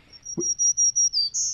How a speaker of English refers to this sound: That's the uh, that's the song of the black-throated green warbler